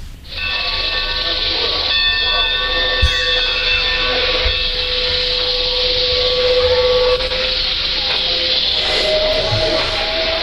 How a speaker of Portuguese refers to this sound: Não, motivar mais um pouco, aumentar o número de vagões desse trem. Olha aqui. É uma Maria Fumaça? É uma Maria Fumaça. Quantos vagões? Se não me engano, são três vagões.